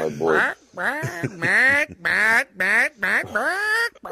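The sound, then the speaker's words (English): A person imitates a squawking pet bird with about seven harsh, nasal squawks in quick, uneven succession, loudly. “I, I, feel like if I got a peg leg, I would have to get a bird.”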